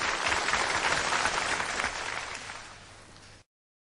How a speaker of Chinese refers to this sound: 好，给台上几位掌声鼓励一下。